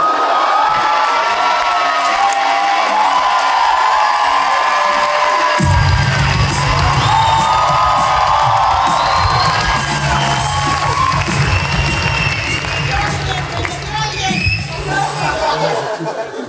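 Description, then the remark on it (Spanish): The audience of the show Aguanta la vara claps and cheers loudly and continuously, with whoops and shouts riding over the sustained applause; a low rumble joins in partway through as the roar keeps going. “porque aquí está aguanta la vara, Fuerte el aplauso.”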